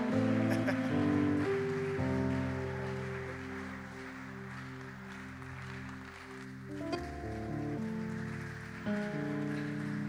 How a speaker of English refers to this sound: Oh, let's welcome our pastor. Oh, let's clap for him. He's a good shepherd.